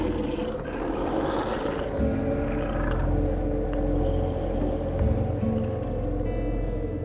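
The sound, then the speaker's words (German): A wolverine growls in the wild in the deeply snow-covered Cabinet Mountains of the Rocky Mountains, between Idaho and Montana in the northern USA, recorded by a staff member of the American Wolverine Foundation: a low, continuous rumble, deep and steady with slight swells in intensity and no voices present. “wie ein Mitarbeiter der amerikanischen Wolverine Foundation diesen wilden Burschen aufgenommen hat”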